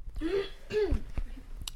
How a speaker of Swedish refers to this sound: Det var ändå ganska, ursäkta mig nu måste jag hosta.